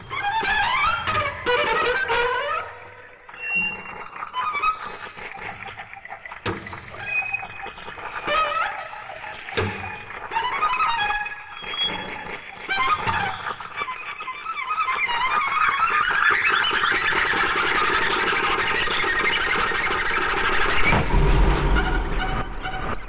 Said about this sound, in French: il a mis une distorsion de verre pilé